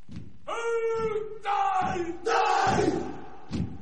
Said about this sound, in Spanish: pero en realidad era una danza guerrera que se hacía de verdad cuando peleaban tribus contra tribus, ¿no?